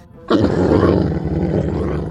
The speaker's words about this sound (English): Walrus incoming! We can talk to this walrus, figure out why he's so mad.